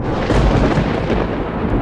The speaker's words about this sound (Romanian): A fost un tunet.